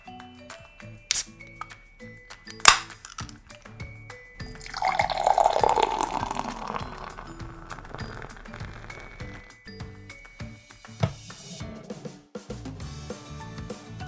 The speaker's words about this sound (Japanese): さあそれでは缶を開けてついでいきます